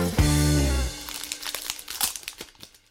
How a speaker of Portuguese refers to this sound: Abrimos aqui o nosso pacotinho maravilhoso